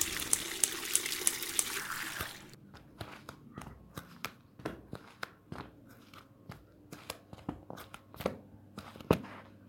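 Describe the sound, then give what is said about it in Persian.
Water runs noisily into a cooking pot for a couple of seconds, then stops, followed by a steady series of sharp clinks and knocks as pots of various sizes are handled and placed on the gas stove. No one speaks. “منم همین کارو کردم هرچی قابلمه داشتم برداشتم پر از آب کردم و گذاشتم روی گاز”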